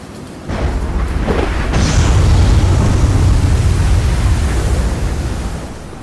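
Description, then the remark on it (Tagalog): A storm's strong wind roars in steadily after a brief quieter start, a loud, continuous rushing with deep rumbling of thunder underneath that swells and then eases slightly toward the end. No voices are heard. “labas ng hangin! Parang may bagyo!”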